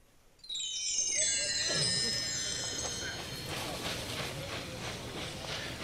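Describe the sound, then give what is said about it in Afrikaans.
A steam locomotive runs along the rails with a loud, sustained hiss and a high metallic squeal, then settles into a rhythmic chugging clatter that continues steadily. “In die tyd is daar stoomlokomotiewe.”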